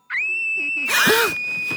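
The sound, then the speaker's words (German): A loud, shrill scream held at a steady high pitch for nearly two seconds, breaking into a harsher, rougher burst midway before settling back to the piercing tone. “Und zwar begann er mit einem Schrei.”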